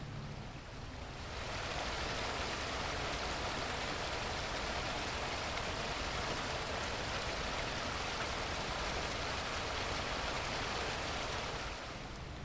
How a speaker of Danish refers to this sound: det er lyden af spildevand, og det er også lyden af en god forretning for samfundet